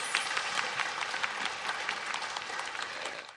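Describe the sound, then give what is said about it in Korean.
Steady audience applause for front-line public servants at the Korea Meteorological Administration and the Ministry of Public Safety and Security. A dense wash of many hands claps at a brisk, even pace, fairly loud throughout and fading off at the very end. No one speaks over it. “거기 지금 일선에서 근무하시고 있는 공무원분들, 기상청, 국민안전처 이런 데 계신 분들에게 예, 여러분들이 박수 한번 보내주시면 좋겠습니다.”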